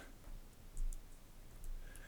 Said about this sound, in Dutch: Doe ik er wel even een metronoom bij.